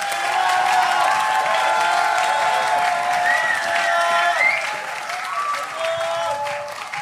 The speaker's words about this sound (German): Und alle, die das feiern, gebt mal einen richtig, richtig fetten Applaus für 1. Mose 2, Vers 7.